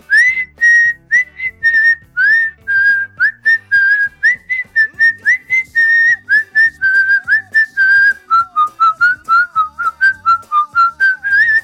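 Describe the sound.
Someone whistles a lively tune alone, with short, clear, high notes in a bouncy rhythm and a few quick slides between pitches, fairly loud throughout with no talking.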